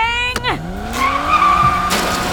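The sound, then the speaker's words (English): A car's engine revs and drops as tires skid and squeal through a handbrake slide while turning into an alley, loud, with a sharp burst of noise near the start and again near the end. “If we try the handbrake slide again.”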